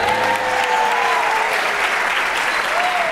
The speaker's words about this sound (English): Oh, you won a point for, for Adam, and I think a round of applause for Bill